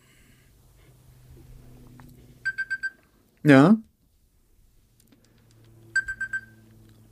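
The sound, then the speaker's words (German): A bright, rapid electronic ringing, like a kitchen egg timer, sounds in two short bursts of quick pulses separated by a few seconds, with quiet background talk and a brief voiced sound between them. “Das hört sich an wie eine Eieruhr.”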